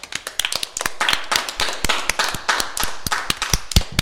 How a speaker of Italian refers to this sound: Applauso signori.